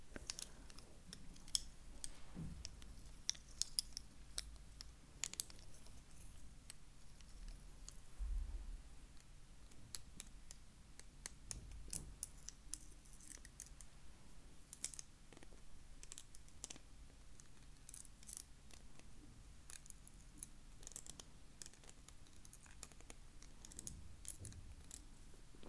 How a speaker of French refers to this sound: Pinsel. Ich habe zu wenig, sonst würde es noch bessere Geräusche machen. Wenn man Pinsel so aneinander reibt, hört sich das so schön an.